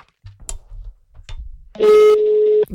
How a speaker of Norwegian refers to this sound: Nei, uh, jeg pauser, og så ringer han opp igjen uh, eh, ASAP.